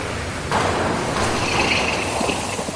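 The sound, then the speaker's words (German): A steady, dense industrial roar fills a 3,000-square-metre foundry hall from a burning Siemens-Martin casting furnace with four ladles, running seven days a week at 1600-degree casting temperature, with a few heavier surges and faint metallic clatter mixed in. No one speaks. “Die Lautstärke des Kranes, die klaren Zurufe der Schmelzer. Und vor einem brodelt das Modell.”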